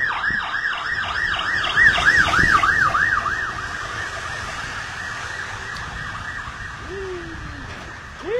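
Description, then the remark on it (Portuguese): A fire department ambulance siren wails in fast, rising-and-falling sweeps, loud at first and then fading into steady background noise as it moves away, with no voices present. “É ambulância? É, é, os, é os bombeiros, é os, é os bombeiros. A ambulância do Corpo de Bombeiros.”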